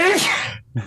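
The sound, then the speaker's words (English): A single loud sneeze, a sharp voiced burst that trails off into a brief silence before a short breathy sound follows. “I'm gonna sneeze.”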